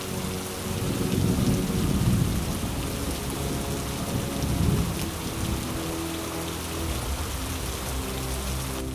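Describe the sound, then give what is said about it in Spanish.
Heavy rain pours steadily throughout, with deep rolling thunder rumbling low beneath it, swelling near the start and again midway, a dense, continuous storm with no voices. “les había enviado una fuerte tormenta que había durado ya semanas.”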